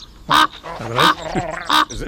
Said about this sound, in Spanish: Una degollada es un mirador a los dos lados de la ventana la caldera de Tauriente, ah, un, un despeñadero. Están nuestros amigos los cuervos. ¡Ah!